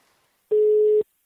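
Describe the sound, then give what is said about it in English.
A single steady electronic phone tone sounds once for about half a second, loud and clear with nothing else around it, the ringing heard on the line while a work phone call connects from Austin. “I'm in Austin for the film festival, but there's one work phone call I have to make.”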